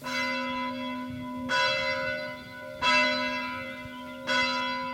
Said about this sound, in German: der Kirchenturm, der Glockenturm, wo die Kinder läuten gehen